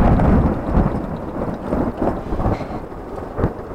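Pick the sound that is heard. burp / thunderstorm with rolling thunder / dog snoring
thunderstorm with rolling thunder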